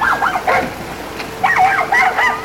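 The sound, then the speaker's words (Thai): A puppy yaps loudly in two quick bursts of high, wavering yelps separated by a short pause, clear with no talking, barking in alarm on seeing a kitten drowning. “ลูกหมาได้เห็นเพื่อนกำลังจมน้ำก็ได้ตกใจเป็นอย่างมาก มันได้เห่าเสียงดัง”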